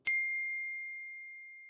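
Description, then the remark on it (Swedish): A single bright clink of glasses touching in a toast, followed by a clear, high ringing tone that slowly fades over more than a second. No voices are heard. “ska vi ta en liten eh, skål på denna inledningen kanske?”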